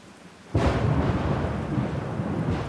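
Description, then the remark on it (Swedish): Quiet steady rain, then at about half a second a deep, loud rumble of approaching thunder rolls in and keeps grumbling heavily under the rain until the end, with no voices. “Jag lyssnade på regnet och till skramlet från de blöta, småglasade fönstren och märkte mullret av annalkande åska som var ganska ovanligt för årstiden.”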